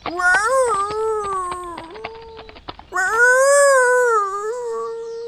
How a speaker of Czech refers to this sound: Jak si tak vykračoval silnicí, uviděl loveckého psa, jak leží na cestě a žalostně vyje.